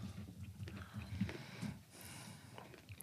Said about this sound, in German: Da sagt er nichts. Das ist ja nur ein Kauen.